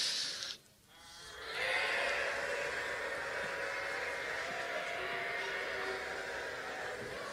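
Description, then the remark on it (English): A crowd, joined by the speaker, voices a loud, sustained rushing hiss in imitation of friction, briefly dipping after a second of hissing before swelling back into a steady, breathy roar for several seconds. “I'm gonna, I'm gonna turn a paradigm upside down, and I need you to make the sound of friction with me, okay?”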